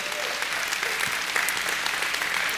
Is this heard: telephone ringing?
no